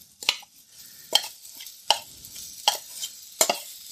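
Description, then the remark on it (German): Jackfruit marinated in oil and spices sizzles in a hot wok, a steady crackling hiss broken by regular spatula scrapes about every second as the pieces are spread across the bottom of the wok and stirred, with no voices. “Das in Öl und Gewürzen marinierte Jakobs Fruchtfleisch gebe ich mal ein und verbreite, verteile das hier ein bisschen auf den Boden meines Woks hier, damit alles ein bisschen Hitze bekommt.”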